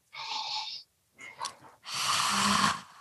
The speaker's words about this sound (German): ja, die Einstiegs, ähm, ich sag das Einstiegs-Pranayama für jeden Anfänger. Und ja. kann auch jeder mal ausprobieren. Also, was mir gut geholfen hat, ist, wenn man sich zum Beispiel vorstellt, man würde durch ein Röhrchen im, im, im Rachen atmen, ja.